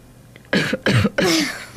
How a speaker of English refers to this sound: There's a little tickle in the back of your throat, and you need to clear it. Go on. I really could do with a cough. Have a little cough, cough. Go on.